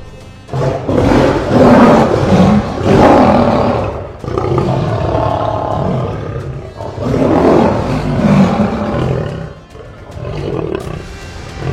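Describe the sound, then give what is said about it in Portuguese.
Hungry lions in a den roar loudly, several deep, growling roars overlapping in long rumbling waves with brief lulls between them. No one speaks. “Daniel foi jogado na cova dos leões famintos e uma pedra foi colocada na porta”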